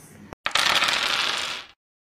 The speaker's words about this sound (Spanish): y entonces vamos a lanzar los dados.